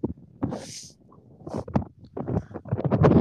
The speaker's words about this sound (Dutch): Begint hier ook weer te waaien als een malle